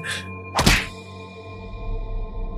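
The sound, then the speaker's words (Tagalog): A single hard, thudding whack like a kick to the face lands after a brief swishing rush, followed by a faint lingering ringing tone. “Tinadyakan ako ng sobrang lakas”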